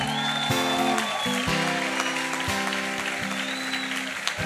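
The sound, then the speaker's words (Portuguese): A crowd claps steadily and densely for several seconds, applauding the couples married for more than 50 years, a continuous wash of hand claps over sustained low musical chords that shift every second or so. “Você pode aplaudir?”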